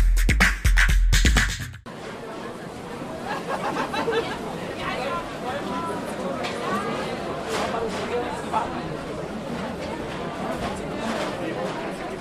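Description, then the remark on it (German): Busy outdoor crowd ambience at the Christmas market by Cologne Cathedral in Germany, with steady overlapping chatter and general hubbub from many people, continuous and moderately loud, after a brief loud burst at the start. “Was ihr gerade gehört habt, waren ein paar atmosphärische Eindrücke vom Weihnachtsmarkt am Kölner Dom, die wir für euch eingefangen haben.”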